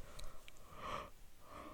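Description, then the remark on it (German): A breathy yawn: a drawn-out airy inhale that swells and fades, followed by a softer exhaling tail, with no talking. “Ich entschuldige mich jetzt schon, ich muss schon wieder gähnen.”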